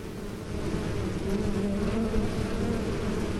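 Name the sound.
bees buzzing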